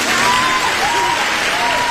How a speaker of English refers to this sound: Thank you. Thank you. Please hold your applause until Alexis comes to a complete stop.